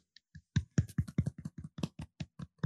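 A few people give soft, polite golf claps, a sparse patter of about a dozen quiet claps in an uneven rhythm over a couple of seconds, with no voices.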